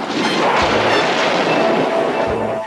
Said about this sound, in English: And now we get to our final chase of the episode the boys track down the green machine, which fires up the flamethrower once again.